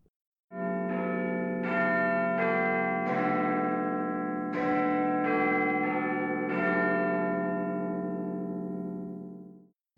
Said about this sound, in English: The Big Ben clock tower was completed in 1859 and at the time was the largest and most accurate four facing striking and chiming clock in the world.